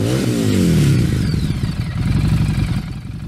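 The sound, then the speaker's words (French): A Harley-Davidson motorcycle engine revs up loud while standing still, its deep rumble swelling in pitch, then settling into a heavy, uneven throbbing idle. No voices are heard. “il est-tu obligé de craquer sa, moto de même là, quand il est arrêté?”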